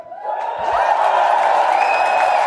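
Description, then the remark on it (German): An audience cheers euphorically, loudly and steadily for a couple of seconds, a dense roar of many voices with a few higher whoops rising above it. “Aber ich möchte jetzt genauso äh, euphorisch wie das Publikum euch auch hören.”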